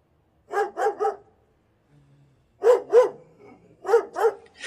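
Several dogs bark loudly in quick bursts of two or three sharp woofs, pausing briefly between volleys, with a faint low rumble in the gap and no talking.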